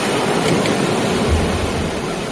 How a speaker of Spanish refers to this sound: Estar en la playa. Estás grabando. Arrullándote con el oleaje.